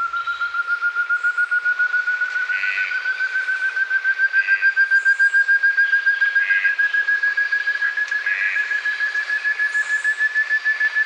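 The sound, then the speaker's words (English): Rainforest birds call with no talking: a piercing, unbroken whistle slowly rises in pitch throughout, while ant thrush, red-breasted toucan and piping guan calls repeat as short bursts roughly every two seconds, recorded by Eloisa Mature. “Eloisa Mature recorded the piercing calls of the ant thrush, joined by the red breasted toucan and a piping guan.”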